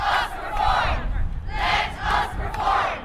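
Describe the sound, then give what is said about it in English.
A large protest crowd chants in unison outdoors outside the Opera House, loud rhythmic shouted phrases rising and falling in steady waves, with a rumble of background noise underneath. “Okay, I know we had a reporter down outside the Opera House, and uh, one of the people protesting was actually one of your own uh, students,”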